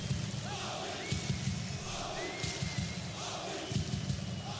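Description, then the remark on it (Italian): A large stadium crowd of Sporting Lisbon football fans chants "Sporting" in unison, a steady roar of many voices with rhythmic swells and occasional heavy thumps, echoing across the stands. “Questi sono i tifosi dello Sporting Lisbona, giudicando dal, dal core Sporting Sporting.”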